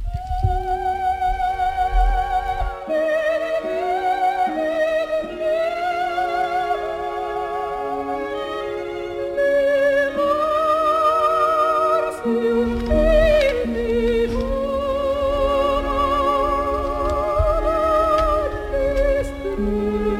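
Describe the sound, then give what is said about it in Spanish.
A soprano sings the most famous aria of the opera Madame Butterfly, from the moment Butterfly decides to take her life, in a staging at the Teatro de la Maestranza. The aria soars with strong vibrato over full orchestral accompaniment, rising to sustained high notes and swelling dramatically, clear and fairly loud throughout. “no quiero dejar de comentaros y enseñaros el área más, más famosa de la ópera.”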